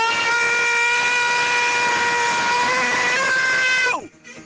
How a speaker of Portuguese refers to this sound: Como é que não quebra o telefone, velho? Essa pessoa dá um grito desse, meu amigo.